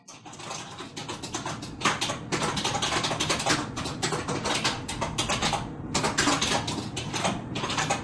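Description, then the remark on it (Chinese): Rapid, nonstop typing on a loud retro typewriter-style keyboard at a workplace, recorded without amplification on an iPhone's built-in recorder placed on a desk: dense, irregular clacking keystrokes with sharp, bright clicks running steadily through the whole clip, with no voices. “職場甘苦：可怕的復古打字機鍵盤”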